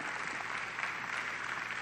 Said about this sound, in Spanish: ¿No es maravilloso Dios? Denle un aplauso, pues.